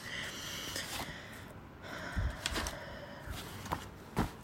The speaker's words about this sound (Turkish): Ee, onu bir bulmam gerekiyor. Burada dosyalar çok fazla bu arada. Arada kağıt sesleri, hışırtılar duyabilirsiniz.